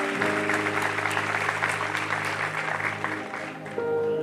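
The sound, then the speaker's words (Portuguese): A church audience applauds God loudly and steadily during a service, a dense reverberant wash of clapping over a sustained organ or keyboard chord humming underneath. “Então, bem forte, aplauda Ele.”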